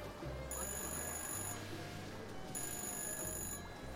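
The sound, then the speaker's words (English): A telephone rings in two evenly spaced bursts, each about a second long, its bright trilling tone cutting over a steady low hum and busy background ambience. “All the while, the phone continues to ring.”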